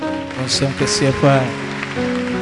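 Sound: audience clapping hands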